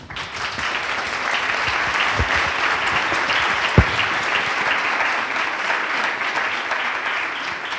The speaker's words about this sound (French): Je pense qu'on peut applaudir nos intervenants.